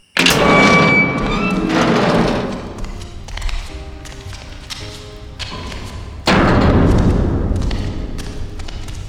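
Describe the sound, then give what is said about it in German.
A massive, heavy round door grinds open with loud metallic thuds and rumbling, a steady mechanical hum in the middle, then a second heavy clanking surge that slowly fades. No one speaks. “Das ist aber eine schwere Tür. Und rund.”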